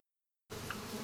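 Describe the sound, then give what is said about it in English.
A dense, steady droning buzz of thousands of tsetse flies being reared for research in an IAEA laboratory starts abruptly after a moment of silence, filling the space with a continuous insect hum. “This is the sound of thousands of tsetse flies that are being reared in the laboratory of IAEA for research purpose.”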